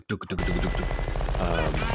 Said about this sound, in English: the actual shot firing sound they chose to use was the sound of a 50 cal tank weapon